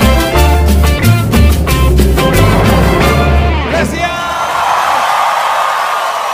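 A band's rhythmic music plays for a few seconds, then gives way to a loud, steady wash of crowd applause and cheering, with whoops and shouts rising from the audience.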